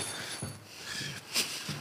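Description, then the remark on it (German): A small metal ring drops and strikes a hard surface with one sharp, bright clink, preceded by faint shuffling and light handling noises. “Jetzt, was ist denn da jetzt runtergefallen? Der Ring. Mein Ring.”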